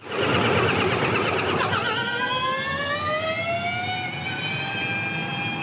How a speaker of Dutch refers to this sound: je hoort een auto wegrijden